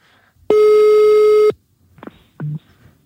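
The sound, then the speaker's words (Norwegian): A single steady ringback tone from an outgoing phone call lasts about a second, loud. It is followed by quiet handling noises and a short muffled burst. “Vi ringer henne, så ja, ser vi om hun tar den.”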